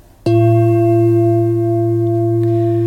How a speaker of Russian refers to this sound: Это мы с палисандровым стиком ударяем по кромке чаши. И этот удар нужно отрабатывать звукотерапевтом, чтобы он очень был мягким и гармоничным.